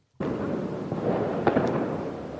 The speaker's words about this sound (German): Schon, schon erstaunlich rauschig. Äh, naja, die ganzen Böller und hm. Störgeräusche drumherum.